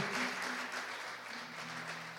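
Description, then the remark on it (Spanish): Sustained audience applause, a dense, steady wash of many hands clapping at an even moderate loudness for a couple of seconds, with a faint hum underneath and no voices. “Dale el mejor aplauso al único que merece toda, toda esa gratitud.”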